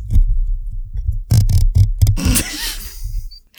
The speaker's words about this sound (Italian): fammi fare una cosa ASMR, posso? Oh, va bene. Non credo, so neanche se si sente. Non credo sia molto ASMR. ma non hai mai visto quelle che grattano sui microfoni? È una cosa odiosa. Sì, ma di solito viene una cosa tipo così.